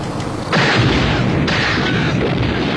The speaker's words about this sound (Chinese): 随着一声巨响，塞尔玛打爆了那辆油罐卡车